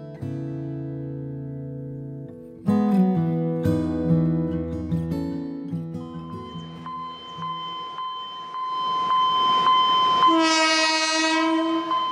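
An Alishan Forest Railway train in Taiwan runs with a steady rumble while its horn sounds in long, sustained, multi-toned blasts, rising in loudness, before a shrill, higher whistle-like blast near the end.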